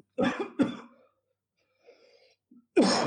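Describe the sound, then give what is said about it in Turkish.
A couple of sharp, explosive sneezes burst out, followed by a quiet pause with faint breathy sounds, then another loud, abrupt burst at the end. “özür diliyorum. Çok yaşa çok yaşa.”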